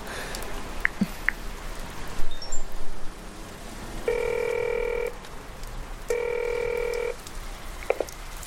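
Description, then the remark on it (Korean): A phone number is keyed in with a few quick beeps, then two steady one-second rings of a telephone ringback tone, separated by a pause, over soft winter rain, as a caller phones from in front of the Marui department store. “민서가 2번으로 전화하라고 했었지?”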